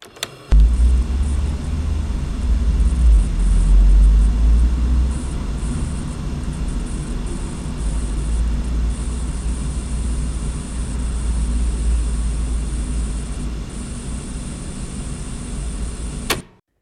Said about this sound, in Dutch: Er lijkt wel een soort statisch geluid te horen. En dit is het enige audioclipje die dat heeft.